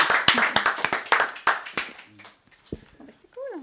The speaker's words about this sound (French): On l'applaudit.